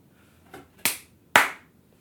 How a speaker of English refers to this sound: Like this room sounded terrible. Let me clap far away so you could hear how much it sounds compared to before.